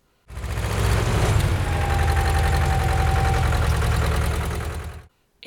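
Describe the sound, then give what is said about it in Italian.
The heavy diesel engine of a large bulldozer beside a river at dawn rumbles steadily, a deep throbbing drone with a faint whine riding on top, running continuously for about five seconds before cutting off. “Nelle prime luci dell'alba appaiono accanto all'acqua delle grosse ruspe”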